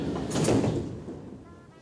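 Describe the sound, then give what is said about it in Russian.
Metro train sliding doors whoosh shut in a single broad, hissing sweep that peaks early, then settles into a low mechanical rumble fading out, with no one speaking. “Осторожно, двери закрываются.”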